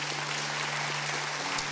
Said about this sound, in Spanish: Dele un aplauso fuerte a Jesús. Damos gracias.